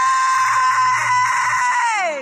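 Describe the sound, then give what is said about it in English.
A woman's loud, sustained high-pitched scream, from a played recording, holds steady for about two seconds, then slides downward in pitch as it fades, heard alone with no talking. “I want to smack her when she screams like that.”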